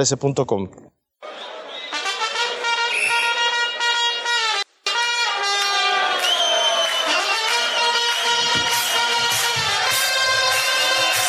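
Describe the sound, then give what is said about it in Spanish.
A large crowd of Boca Juniors football fans chants and sings together in a stadium, loud and sustained, with a couple of brief cuts in the roar. “Eso que está sonando es la hinchada de Boca Juniors.”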